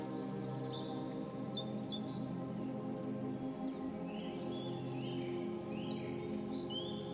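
Busy birdsong fills the air, many high chirps and trills overlapping continuously over a steady low background hum, with no one speaking.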